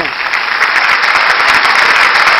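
Loud, steady audience applause fills the whole clip, a dense hiss of many hands clapping at once with no breaks and no voices standing out.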